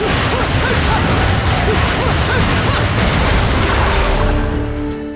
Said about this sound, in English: So we smash open a chest and we get a giant key.